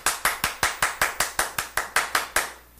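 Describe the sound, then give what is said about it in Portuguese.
Applause sound effect played on Gazeta FM radio: about a dozen sharp, evenly spaced hand claps in a quick steady rhythm, fairly loud and with no voices, ending in a brief fading tail. “A gente vai criar o quadro aqui, moções de aplausos da Gazeta FM.”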